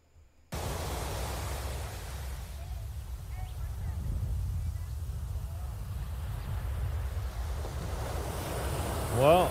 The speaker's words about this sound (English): Sosua Beach, Playa Sosua on the north coast of beautiful Dominican Republic.